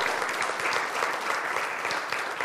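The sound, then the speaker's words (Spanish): Steady, dense clapping from a crowd applauding God during a Christian sermon, a continuous crackling wash of many hands at even loudness, swelling briefly at the very end. “Ah, sí, dale el aplauso a Dios si tú crees que eso es así.”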